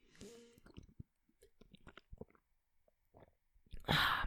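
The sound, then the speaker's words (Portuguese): Someone drinks water, with a run of small wet mouth clicks and swallowing gulps, then a loud, breathy burst of noise at the end. “Será que se eu beber é som de batismo?”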